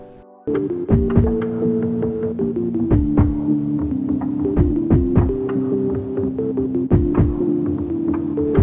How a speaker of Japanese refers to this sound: まあ内容についておしゃべりすると、あの、まあ、ベースとかドラムとか、まあ、下の方の音、まあ、この辺りですね、確か、確かこの辺。